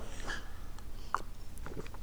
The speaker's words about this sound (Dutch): Ja, sorry, een slokje water.